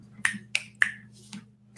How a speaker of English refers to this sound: Snap your fingers